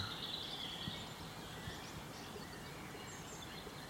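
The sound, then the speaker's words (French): Soft birdsong in spring with scattered high chirps and trills, fairly continuous over a steady outdoor background hiss; no one speaks. “Mais là, on voit que ça gazouille ça gazouille beaucoup.”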